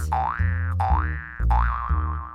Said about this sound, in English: After that, the fluffy white pillow started jumping on the mattress.